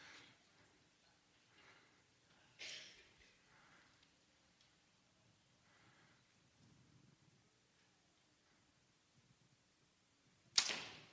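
An arrow shot in front of a service crowd whooshes through the air, then a sharp, loud thwack as it strikes the middle of the target, with a faint earlier swish and quiet murmuring in between.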